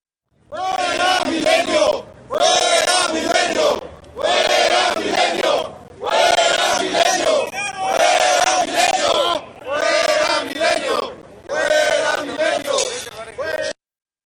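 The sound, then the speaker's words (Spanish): A large, angry crowd of federal police officers, angry at certain media outlets, shouts in unison, about six loud chanted bursts separated by brief pauses, forceful, with no other sounds between them. “El video que vimos es precisamente una muestra del enojo que tienen los policías federales con respecto a ciertos medios de comunicación”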